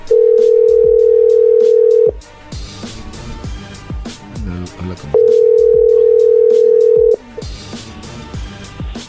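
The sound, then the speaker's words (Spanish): A telephone ringback tone of a call that goes unanswered: two loud, steady, mid-pitched two-second tones separated by a pause of about three seconds, with other busy sound continuing underneath and between the rings. “Le marcamos de aquí y aquí no, no contesta tampoco.”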